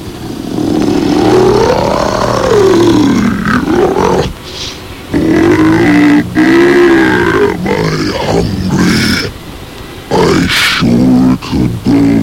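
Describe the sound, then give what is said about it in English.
The Toe Monster, which lives under the bed, grunting and growling as it wakes at night: long, deep, rumbling groans that rise and fall in pitch, loud and continuous, broken by two brief pauses. “That's when I hear him come awake.”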